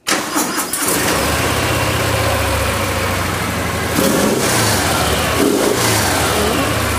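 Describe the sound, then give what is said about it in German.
An American motorcycle with a flap exhaust system starts up with the exhaust flap closed and settles into a steady, muffled idle with a low rumble, briefly revving twice near the end, with no one talking. “Wenn ich die jetzt anlasse, ist die Auspuffanlage zu.”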